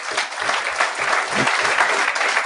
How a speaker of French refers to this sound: Je pensais que c'était moi. Il y avait quelqu'un qui tapait sa table, mais en même temps, c'est comme, tabarnak, je tape fort